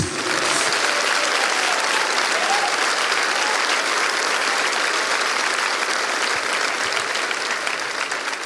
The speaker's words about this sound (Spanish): Denles aplauso a Jesús.